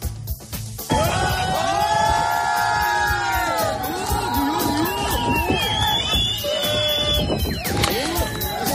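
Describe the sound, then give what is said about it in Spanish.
A crowd on land cheers and whoops loudly and continuously at drug-smuggling speedboats evading Guardia Civil officers in the port of Barbate, Spain, many overlapping voices shouting and hollering outdoors and laughing at the officers, with rising yells and whistles throughout. “Vitorea desde tierra a las narcolanchas, riéndose de los guardias civiles.”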